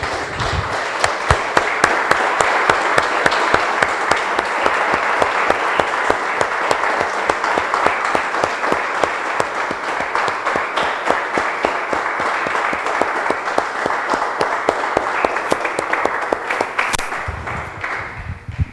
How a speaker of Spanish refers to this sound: Damos un aplauso, hermanos de Señor.